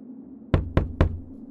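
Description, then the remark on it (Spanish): Three heavy, rapid knocks as a terrified man pounds frantically on the door of a house, loud, each a sharp thud with a booming low end over a quiet background. “Comenzó a dar golpes a la puerta como un loco, despertando a mi abuela, quien salió preocupada al escuchar tal alboroto.”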